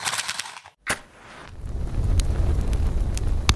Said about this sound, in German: Ich mache noch schnell das Lagerfeuer an und dann legen wir los.